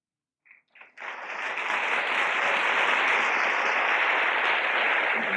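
A few isolated claps start things off, then a large audience at a conference on medicine and conscience breaks into sustained, steady applause after a speech, a dense, even wash of clapping that holds at full strength without fading.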